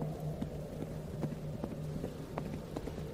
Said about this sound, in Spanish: Íbamos platicando y riendo normal, cuando de pronto, a unos metros detrás de nosotros, escuchamos un trote de caballo desenfrenado que pasó hacia la calle que llevaba para aquella cantina.